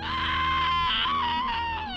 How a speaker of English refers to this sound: I heard the creature click as it ran towards her, and the mother of my kids let out a blood curdling scream